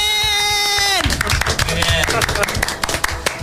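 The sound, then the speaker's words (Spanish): A sustained harmonic tone slides downward and cuts off, giving way to a dense burst of audience applause for a bronze award winner, many hands clapping quickly and steadily until the end. “Un fuerte aplauso para la canela de rama de oro de bronce”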